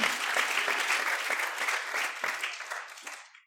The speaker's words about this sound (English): Clap your hands unto the Lord if you believe it with me.